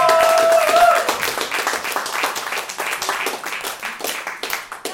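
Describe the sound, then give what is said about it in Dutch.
A festival audience breaks into warm, steady applause for the festival's organizer, many hands clapping densely at once, with a brief whistle near the start; the clapping stays full and lively throughout. “Dames en heren, mag ik een heel hartelijk applaus”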